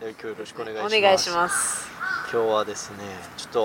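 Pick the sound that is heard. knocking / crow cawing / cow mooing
crow cawing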